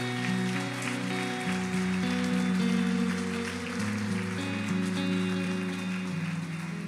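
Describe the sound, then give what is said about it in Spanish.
A church audience gives God a round of applause after a prayer, with dense, steady clapping that holds for several seconds, layered over sustained keyboard chords playing underneath. No one speaks. “¿Alguien puede darle un aplauso a Dios?”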